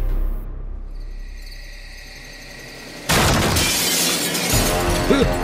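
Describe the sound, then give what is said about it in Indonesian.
Quiet insect chirping fills the first few seconds, then a sudden loud crash of smashing glass and splintering erupts as about ten people in black masks smash the door and windows of a house at pre-dawn sahur time in Ramadan 1998; the harsh clatter continues to the end. “Sekitar 10 orang bertopeng hitam mendatangi rumahnya, merusak pintu dan jendela, dan menyeret pemiliknya.”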